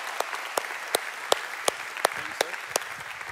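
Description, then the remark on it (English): An audience applauds as a pastor is invited up to speak: a dense, steady wash of clapping with sharper, louder claps landing on a regular beat, about three per second, throughout. “So, would you guys give it up for Pastor,”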